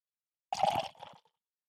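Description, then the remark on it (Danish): A brief gurgle of a reddish barley wine being poured into a glass, a splashy burst followed by a quieter trickle that stops after under a second, with no one talking. “Nej, jeg prøver lige at skænke lidt også.”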